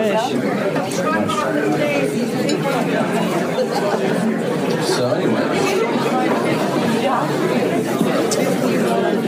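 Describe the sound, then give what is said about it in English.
Dense, loud crowd chatter fills a busy venue, many overlapping voices blending into a steady roar, with one voice briefly speaking over the din. “Man, can you imagine, can you believe how loud it is in there?”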